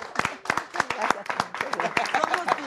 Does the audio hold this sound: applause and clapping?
yes